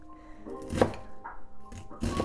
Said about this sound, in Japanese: なんか包丁の包丁さばきがゆっくりだとか思いませんでした今今ですね私右手の親指を怪我してまして怪我っていうかちょっと捻挫打撲というか痛くてなかなかあのスムーズに動かせない感じです。